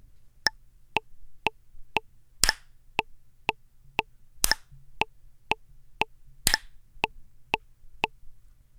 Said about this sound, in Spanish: Te voy a poner un metrónomo que marque las cuatro pulsaciones de un compás, y tienes que marcar la primera pulsación con las palmas. Así.